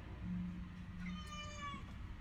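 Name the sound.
cat meowing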